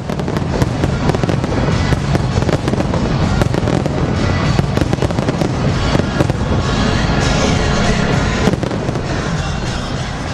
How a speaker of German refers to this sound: release a huge firework display. Six tons of fireworks we fire from Edinburgh Castle.